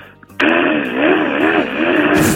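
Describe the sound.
A voice imitates a power drill boring holes during a neighbour's interior renovation, in a voice-impression contest on Park Myung-soo's Radio Show: a loud, steady buzzing whine that starts abruptly and holds for about two seconds, its pitch wobbling up and down as if the bit were biting in.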